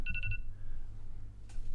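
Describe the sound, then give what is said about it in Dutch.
A phone rings with a quick burst of four bright electronic beeps, then a fainter tone lingers before a brief chirp near the end, over a low background hum. “Uh, je eh, moet je, telefoontje uitzetten.”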